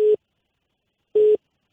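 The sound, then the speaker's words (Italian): A telephone busy signal after a phone line dropped during a call: two short, steady mid-pitched beeps separated by about a second of silence, clear and fairly loud with no talking. “C'è cascata, c'è cascata Suad, è cascata la linea, ora tra poco la recuperiamo.”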